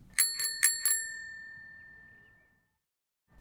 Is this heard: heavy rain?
no